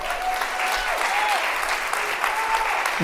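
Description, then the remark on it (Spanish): Loud audience applause given to the Lord, a dense, steady wash of clapping that holds for about three seconds, with a few faint voices or whoops rising briefly above the noise. “O sea, denle un fuerte aplauso al Señor.”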